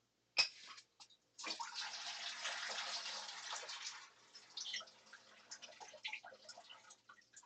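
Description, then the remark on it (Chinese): Hot water from a kettle or water dispenser is poured into a teapot and strainer to rinse and warm them before making milk tea: a sharp clink, then a steady rushing pour for a few seconds, followed by softer sloshing, swirling and small knocks. No one speaks. “所以说，请用你的热水，哦，热水壶，或是你煮可以用开饮机，大开饮机都可以，先用热水烫一下你的滤网跟你的茶壶。”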